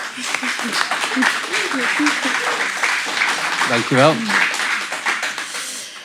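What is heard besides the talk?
audience applause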